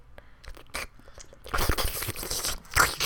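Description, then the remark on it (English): Wet, sloppy slobbering mouth noises: scattered smacks at first, then a louder, dense run of squelching, crunchy slurps through the second half. “No, the slobbering.”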